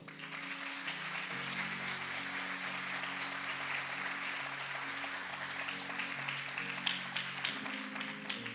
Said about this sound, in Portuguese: Bem, você pode aplaudir o Senhor?